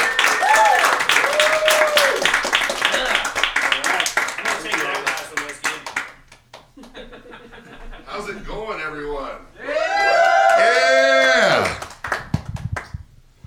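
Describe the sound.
A crowd applauds a performer being introduced, with dense, loud clapping and scattered whoops for about six seconds, then the clapping thins as excited voices shout and cheer.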